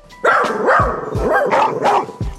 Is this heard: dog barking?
yes